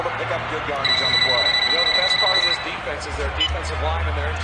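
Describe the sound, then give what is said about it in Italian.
A telephone rings in a TV commercial as one friend calls another, with one steady, high electronic trill lasting about two seconds, set against a constant murmur of background crowd noise and low rumble. “protagonisti dello spot sono due amici che si chiamano al telefono e non avendo molto da dirsi cominciano a fare gli scemi, coinvolgendo altri amici nei paraggi per ammazzare un po' la noia.”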